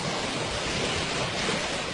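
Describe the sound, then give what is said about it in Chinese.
Water splashing and churning as a large walrus jumps into a stream and rolls around in it, a steady, loud, hissing wash of sound lasting the whole two seconds with no voices. “大海象一见到小溪，就立刻跳了进去，在里面打起了滚来，呵呵，真舒服啊！”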